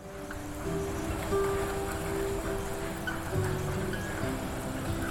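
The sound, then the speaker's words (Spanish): Soft, steady rain falls under a continuous rush of wind, with a low droning hum running beneath; the wash stays even, with no voices. “Llueve. Llueve suave y corre el viento.”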